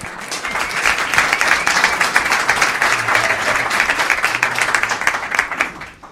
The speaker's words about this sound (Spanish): Bueno, vamos a continuar. Un aplauso para ella.